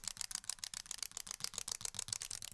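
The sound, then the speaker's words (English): A small plastic wind-up toy from a gumball machine walks across a floor, its gears ticking in a quick, steady run of light mechanical clicks with no voices. “It was a plastic wind up toy from those modified gumball machines outside of grocery stores.”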